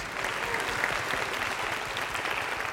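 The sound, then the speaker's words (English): A church audience claps steadily in praise, thanking God for Jesus, many hands making a dense, even wash of applause that holds at a constant level for a few seconds with no voices standing out. “Why don't you clap your hands and say, Thank God for Jesus?”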